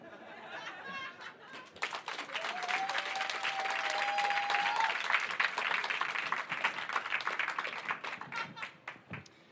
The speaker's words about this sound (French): Hop On applaudit bien fort cette femme qu'on a choisie complètement au hasard, que personne ne connaît.